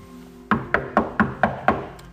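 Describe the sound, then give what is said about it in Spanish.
Six firm knocks on a wooden house door in a steady, evenly spaced rhythm, fairly loud, with no voices; a man knocking again on his son's house door, and no one opens it. “Vuelve a tocar y otra vez no hay nadie que le abra la puerta.”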